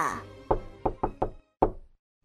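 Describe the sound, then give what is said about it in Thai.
Five sharp knocks on a wooden door, fairly loud, in an uneven rhythm: a quick group of four followed by a slightly delayed final rap, after the tail of a voice. A servant is knocking at Mrs. Wolf's door. “วันหนึ่งคนรับใช้ก็มาเคาะที่ประตูของคุณนายหมาป่า”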